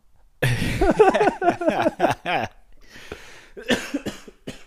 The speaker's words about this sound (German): oh, Lachen ist also nicht gut, ja? Das nee, unweigerlich zum lacht. Hustenanfall.